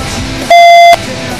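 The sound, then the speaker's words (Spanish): A single loud, steady electronic beep lasting about half a second, a pure high-pitched tone that cuts in sharply over a low background hiss and stops just as abruptly. “Después de unos pitidos infernales, no sé si tenemos al otro lado Felipe Couselo.”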